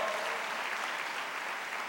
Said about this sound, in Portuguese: Então aplauda o Espírito Santo de uma forma muito especial.